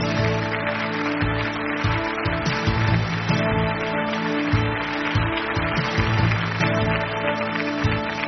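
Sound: audience applause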